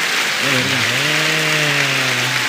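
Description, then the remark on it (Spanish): A dense, steady downpour of applause from a crowd, sustained and loud throughout, with a single voice holding a long wavering cheer over the clapping. “¿Qué pedo con ese aguacero a los que les llamamos aplausos?”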